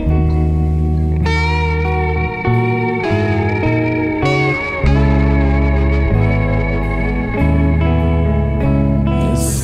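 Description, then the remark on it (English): The first part of a two-part song from a band's new album: a low-key rock song plays steadily, with sustained, reverberant guitar chords over a firm bass line that shifts every second or so. It stays loud and even throughout, with no voices. “have a, a, song off their new album, uh, which comes in two parts. The first part sounds like this.”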